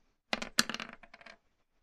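Four dice clatter and tumble across a hard tabletop for about a second, rolled for damage in a game, a quick burst of sharp clicks that taper off, with no voices.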